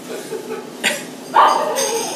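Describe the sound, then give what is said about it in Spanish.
A dog lets out a couple of short, sharp barks, the second louder and slightly drawn out, over a low steady background. “Ah no lo mates al perro.”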